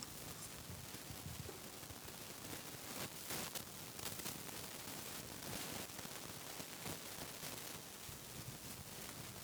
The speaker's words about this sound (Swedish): Är det dåligt batteri i den här? För det brusar lite. Ganska mycket, va? Jag har en plupp kvar.